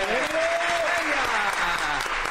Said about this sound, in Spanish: y yo quiero pedir un aplauso, por favor,